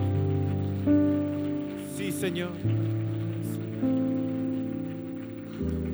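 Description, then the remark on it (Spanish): An audience applauds steadily for several seconds as applause for the Lord, a dense patter over sustained keyboard chords that change every second or so, while a voice briefly calls out. “Vamos a dar un aplauso a nuestro Señor.”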